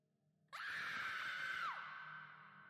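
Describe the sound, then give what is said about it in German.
A woman on a train lets out a single loud, high-pitched scream that holds steady for about a second, then trails off into a fading echo. “Im Zug schreit eine Frau.”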